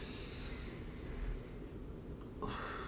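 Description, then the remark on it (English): Forceful, noisy yoga breaths pushed rapidly in and out through the nose, fairly loud, with the tummy tightened on the in-breath, a harsher burst near the end and no talking. “Make your tummy feel like you got a six pack when you're breathing in.”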